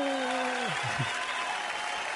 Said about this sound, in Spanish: Aplausos.